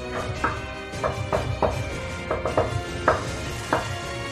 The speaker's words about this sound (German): Und ihr kommt im Blockhaus an und ihr steht alle vor dem Blockhaus. Die Tür steht offen und ihr hört ein leises Hämmern.